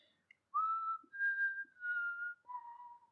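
A person whistles a short tune of four sustained, gliding notes, clear, with brief pauses between phrases and no talking over it.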